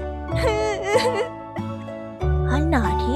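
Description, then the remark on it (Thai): A girl cries and wails loudly while being beaten with a switch by her stepmother, her voice quavering and rising in drawn-out sobs with a few abrupt breaks between bursts. “หมาตัวนั้นก็วิ่งเข้ามาเพราะได้ยินเสียงร้องไห้”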